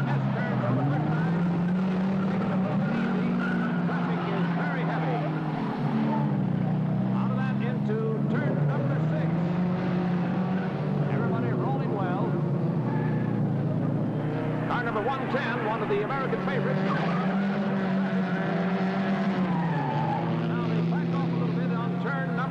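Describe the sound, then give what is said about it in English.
Loud, steady roar of several racing cars on their first lap around a race track, engine pitch rising and falling continuously as they race past, with occasional squeals of tires throughout. “That could be a really dangerous one, but they all come through it very well on this first trip around the track.”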